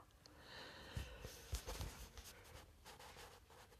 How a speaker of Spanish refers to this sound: perdonen, en serio. Es una mentada de madre de que yo esté bostezando frente de un podcast o haciendo un podcast.